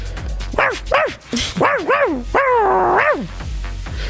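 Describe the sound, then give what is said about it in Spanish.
A dog named Mac barks in a quick run of yelping, pitch-bending barks, about half a dozen in all, one stretched into a longer howl-like bark near the end over a low steady hum. “El perro testigo está en la línea.”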